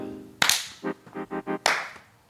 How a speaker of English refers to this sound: All right. All right. Need uh, I need a clap.